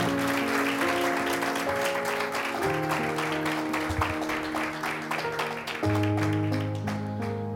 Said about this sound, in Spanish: Denle un aplauso si le quiere dar.